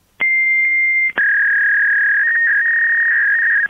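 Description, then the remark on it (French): Fax machine tones from a fax still used in the health care system: a steady, loud electronic whine for about a second, then a sharp click and a slightly lower, continuous tone that holds for over two seconds. “oui, c'est le doux chant du fax qu'on entend encore dans le système de santé”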